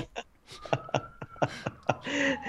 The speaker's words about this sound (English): sorry, we got a lot of uh, noises. I live near a hospital here. You can actually so. tell those are Czech sirens. Is, it doesn't sound at all. Normal.